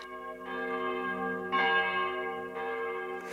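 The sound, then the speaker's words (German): Church bells ring continuously from towers, carrying over the rooftops, fresh bright strikes landing roughly once a second over a sustained, shimmering hum of overlapping tones, moderately loud with no voices. “Die Stunde, wo von den Türmen Glocken fallen und über die Dächer gehen.”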